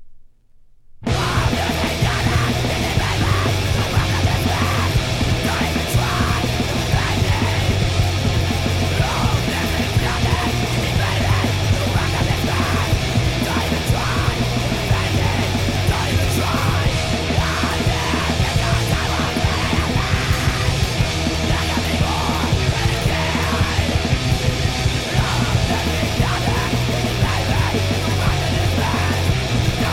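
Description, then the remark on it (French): A loud, dense music track with screamed, harsh vocals, kicking in after a brief silence and staying at a constant, saturated intensity throughout. “Et c'est déjà le, le, moment de la fin de ce quiz Yell, cri, hurlement avec le quinzième morceau bien entendu.”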